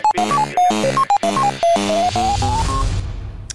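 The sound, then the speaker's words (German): A short, loud musical jingle, louder than the other jingles: a quick run of bright synth notes bouncing up and down, then a brief swell of noisy, distorted sound that fades out. No one speaks. “Der Jingle ist irgendwie lauter als die anderen, habe ich das Gefühl.”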